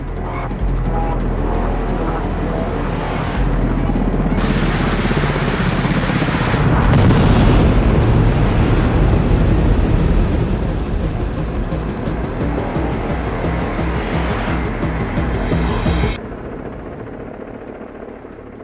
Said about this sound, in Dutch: De Apache vuurt hier eigenlijk in het ehm, hoek van het gebouw.